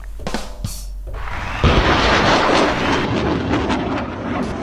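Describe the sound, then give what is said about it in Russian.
An explosion sound effect played by pressing a button, as a mock blowing-up of the Kremlin: a few short crackling hits, then a sudden loud blast that rolls into a sustained, roaring rumble lasting to the end. No one speaks. “О, кстати, у нас есть кнопка, можем пока Кремль взорвать.”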